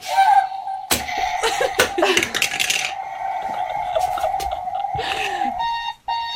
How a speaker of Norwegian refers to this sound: Denne vekkerklokken som er da en rakett. Og vi har ja, finfin morgenlyd.